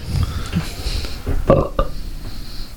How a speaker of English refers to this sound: Was that a belch?